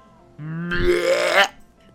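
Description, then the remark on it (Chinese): A single long, drawn-out burp from a grandson, lasting about a second, starting low and guttural, then swelling into a louder, raspy, gurgling belch before cutting off abruptly. No talking. “吐了一个长长的嗝，跟着又是一个更长的气。”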